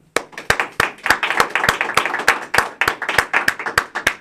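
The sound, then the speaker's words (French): An audience breaks into applause for the participants of a debate, with a steady patter of many hands clapping and a few sharp, louder claps punctuating the crowd roughly every third of a second throughout. “je crois qu'on peut vous applaudir chaleureusement.”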